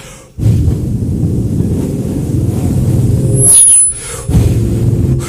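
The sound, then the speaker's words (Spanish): A strong wind blows with a loud, deep, rushing roar that holds steady for several seconds, briefly drops away, then surges back in. No one speaks. “Y este viento comenzó a cortar el agua.”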